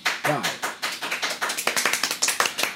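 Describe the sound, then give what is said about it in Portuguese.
Soft hand clapping, a quick run of light, fairly steady claps continuing for a few seconds, with a brief voice sound near the start. “Olha, gente, a gente vai bater palma agora, baixo volume. Palmas.”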